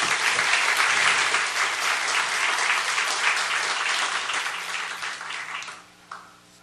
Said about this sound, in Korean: 할렐루야 우리 하나님께 큰 박수 올려드리겠